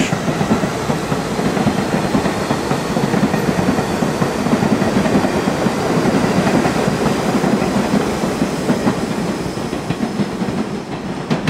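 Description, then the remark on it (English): A subway train clatters steadily along the rails, a loud, continuous rumble with a dense rhythmic clickety-clack running throughout, with no voices. “I could take the D train to the village.”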